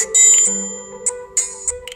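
Bright electronic chimes and tonal beeps from a mobile game, several short sparkly bursts over a steady synthetic hum, fairly close and moderately loud, with no talking.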